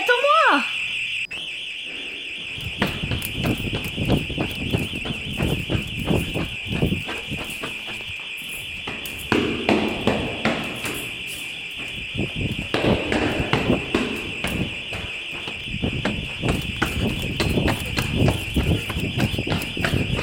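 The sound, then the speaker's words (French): An anti-intrusion alarm rings with a steady, piercing high-pitched tone that holds for the whole clip, while loud clattering noises and people talking break in underneath it. “Eh, mais qu'est-ce que c'est C'est anti intrusion.”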